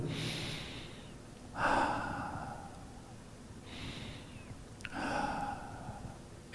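Slow, deep breathing with no talking during a relaxation breathing exercise to calm heart rate: several long, airy breaths, each in or out swelling and fading over about a second, with the exhales loudest and clearly audible.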